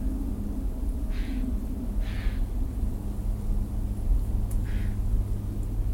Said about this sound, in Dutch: Het Vlaamse gaai wat je nou hoort, dat geluid. Dat is een krassend geluid.